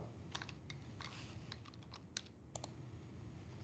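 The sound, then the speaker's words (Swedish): Quick, irregular keystrokes clatter on a computer keyboard as someone types a word into Google Translate, a burst of crisp clicks over a low background hum with no one speaking. “Om jag slår in det snabbt på Google Translate så får jag att pesh är synd eller sin sin på engelska och på svenska.”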